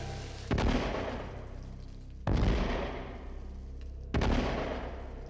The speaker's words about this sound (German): Böllerschüsse hallen durch die Straße zwischen Goetheplatz und Sendlinger Tor. Unter Siegheil rufen wird der erste Stahlträger in den Boden gerammt.